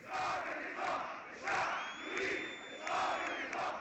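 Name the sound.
protesters chanting slogans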